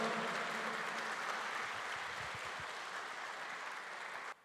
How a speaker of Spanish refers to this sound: Dele un fuerte aplauso por la palabra de Dios. ¿Cuántos se gozan?